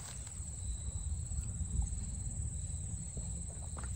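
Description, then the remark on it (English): A steady, unbroken chorus of crickets trills high and thin, fairly faint, among grass and trees, over a soft low outdoor rumble with no one speaking. “we have this opening, this pure space where there's nothing in it or there could be something in it that's happening in the moment, like the blade of grass behind me, the trees, the crickets.”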